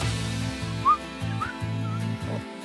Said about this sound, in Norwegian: Og er du også en plystreekspert